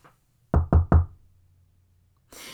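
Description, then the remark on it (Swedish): A son knocks three times firmly on the wooden door of his mother's home at midday, in quick, even succession, clear, followed by a quiet pause and then a soft rushing noise; no one opens. “Några dagar senare knackade järnbäraränkans Bergströms son på dörren hemma hos sin mor.”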